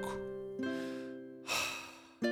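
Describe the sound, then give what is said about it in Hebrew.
A deep, audible breath drawn in and pushed back out, breathy, with a sustained voiced tone carrying underneath and a fresh breath starting at the end, as a patient opens his mouth, says 'ah' and breathes deeply for a doctor's examination. “לפתוח פה גדול, להגיד אה, אה, לנשום עמוק.”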